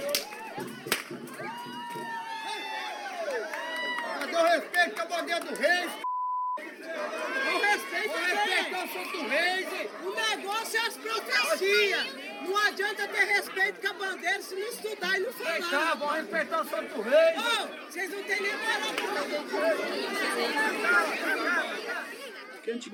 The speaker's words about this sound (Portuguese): Isso foi em Mococa, São Paulo, 2019. O estalo é o barulho do chicote de dois grupos de palhaços se enfrentando.